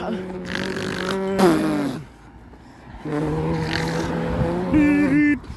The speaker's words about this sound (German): Oh Mann, ist hier viel Verkehr. Passt auf den Verkehr auf!